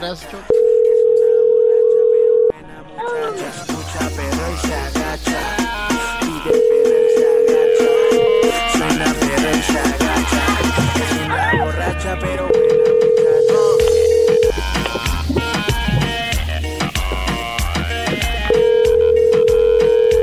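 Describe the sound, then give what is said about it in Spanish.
A telephone ringback tone sounds four times as a call is dialed for a phone word-guessing game. Each ring is a steady, mid-pitched two-second burst, with busy voices and other sounds filling the gaps between the rings. “Muy bien, se está marcando.”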